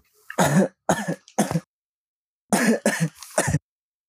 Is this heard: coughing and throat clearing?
yes